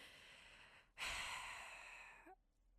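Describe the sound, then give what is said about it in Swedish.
A loud, heavy breath blown into a microphone as someone breathes and moans, a single long rushing exhale lasting over a second, then cutting off abruptly with a faint breathy murmur. “det här Andas är verkligen... lite mer i micken. det är, jag stönar, jag andas”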